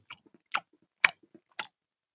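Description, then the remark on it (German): Wet mouth smacks from someone chewing a whisky praline, four crisp smacking bursts at a steady, unhurried rhythm with soft squelchy sounds in between. No one speaks. “Wisst ihr, wie, wisst ihr, wie gut gutes Schmatzen klingt? Wie als würde man durch feuchten Schnee gehen.”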